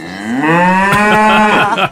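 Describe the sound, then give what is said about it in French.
A single long cow moo, loud and drawn out, starting low and rising slightly into a rich, buzzing bellow that holds steady for nearly two seconds before cutting off. “Ah, c'est quand même elle qui donne le lait.”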